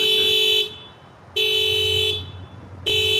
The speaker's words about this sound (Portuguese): que ele tava no carro, abriu a porta, o carro disparou. Olha lá.